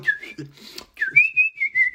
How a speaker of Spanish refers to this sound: Empieza a chiflar ahí en tu trabajo